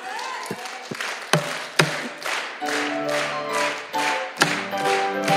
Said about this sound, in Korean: 손바닥에 피가 날정도 쳐봐.